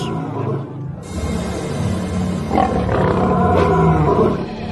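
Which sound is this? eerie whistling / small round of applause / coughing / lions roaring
lions roaring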